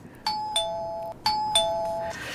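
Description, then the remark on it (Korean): A front-door doorbell rings twice, each time a clear two-tone ding-dong chime with a lingering ring, fairly loud with no voices present. “아, 현관 벨소리군요.”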